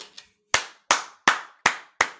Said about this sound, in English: that's how you clap on camera